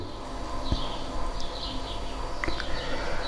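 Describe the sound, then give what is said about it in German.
Faint bird chirps and short calls over a steady low outdoor rumble, with a couple of sharp clicks; no one is speaking. “Ich genieße gerade so die Vögel.”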